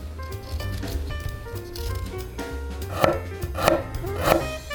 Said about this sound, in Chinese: 我们可以先来处理调味的酱汁，拿出一小块姜，去皮后切成片。